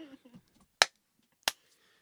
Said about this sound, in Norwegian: Det høres ut som eh, en som klapper i, eh, på radio.